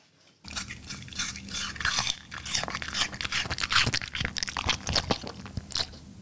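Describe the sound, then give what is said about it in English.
Loud crunching as someone bites into and chews a crisp apple, with repeated wet crunches and snaps continuing for several seconds without any talking. “That's the apple.”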